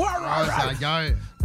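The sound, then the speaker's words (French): A person's voice imitates their dog barking at a cat on the television late at night, giving a short, drawn-out woof-like yelp that rises and falls in pitch, fairly loud, with a brief breathy sound at the end. “C'est que des fois, il est 11h le soir, moi, je suis en train de gosser sur mon cellulaire, j'oublie que la télé est ouverte, puis tout d'un coup, j'ai le chien qui se lève sur le disant”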